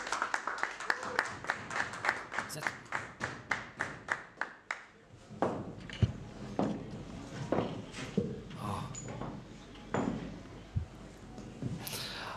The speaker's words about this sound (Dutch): Applaus!